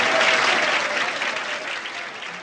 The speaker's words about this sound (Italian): Facciamo un bel applauso per il grande Jack Lamotta, signore e signori.